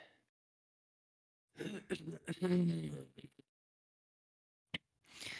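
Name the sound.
throat clearing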